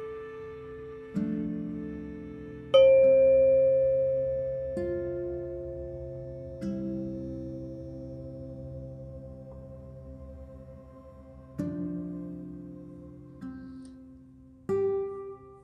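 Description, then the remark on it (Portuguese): A meditation bell is struck about six times at uneven intervals, each clear ring lingering and slowly fading into the next, with no voices. “Ao sentar-se confortavelmente com a sua coluna ereta, depois que ouvir o sino, inspire e expire algumas vezes.”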